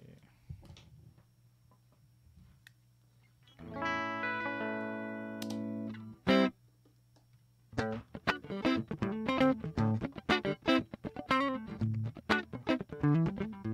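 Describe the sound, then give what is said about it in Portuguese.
Electric guitar played through a preamp pedal, only the preamp's clean sound: a low hum, then a sustained bright chord ringing with dense harmonics, a sharp hit, and quick rhythmic strummed or picked notes with clicky attacks. “Ó, esse aqui é só o som do. do pré.”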